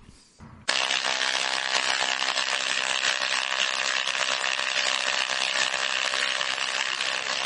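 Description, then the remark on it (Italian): An electromagnetic (Hertzian) radio wave rendered as sound: a harsh, dense electric buzz starts abruptly after a brief faint moment, then holds loud and steady without pause. No one speaks. “Questo è il suono di un'onda elettromagnetica, onda herziana.”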